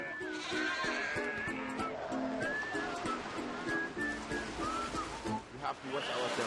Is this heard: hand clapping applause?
no